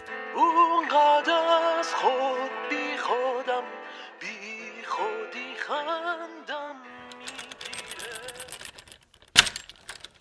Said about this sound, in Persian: حوالی ساعت یازده بود که با صدای چرخش کلید توی قفل بیدار شد